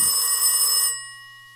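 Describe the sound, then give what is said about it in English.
A single burst of a landline telephone's mechanical bell in a kitchen, bright and rattling for almost a second before the metallic tone lingers and fades, with no voices. “The phone rings.”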